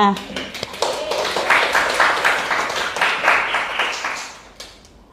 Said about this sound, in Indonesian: Boleh dong minta tepuk tangannya.